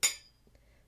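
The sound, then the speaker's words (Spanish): A single bright clink of glasses of Malbec wine touching in a toast, ringing clear before fading quickly. “Un brindis, por favor. Que más que con un buen Malbec.”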